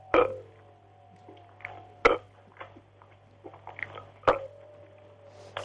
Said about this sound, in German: Ah, ich kann keine vier rülpsen gleich.